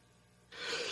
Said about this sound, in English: I'm going to blow my nose real quick.